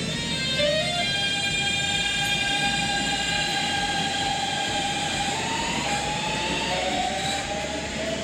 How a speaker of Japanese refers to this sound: わかりましたかこれあの以前、えー、ラジオネームエフライナーさんが教えてくださった、えー、ドレミの音階の、えー、京急 のあのモーター音